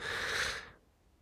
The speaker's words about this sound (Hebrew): אתם יכולים לחפש איזה תרגיל ביוטיוב או להשתמש בתרגיל הכי ישן וטוב. נשימה פנימה לארבע שניות